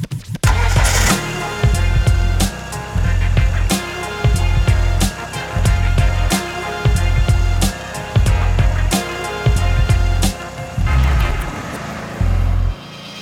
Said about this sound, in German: Also der Klang von dem Motor ne, ist vielleicht einer der schönsten Motorenklänge, die man so findet in der Autogeschichte